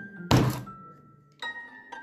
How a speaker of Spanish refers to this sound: Un día, mientras Dina pilotaba uno de los preciosos drones de su amigo, un golpe de aire lo estrelló contra un árbol.